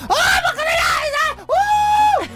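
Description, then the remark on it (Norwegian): A voice imitates high-pitched, drawn-out shrieks of partying women in high heels in bars, two loud wavering squeals in quick succession, exaggerated. “Å hyle damer på høye hæler.”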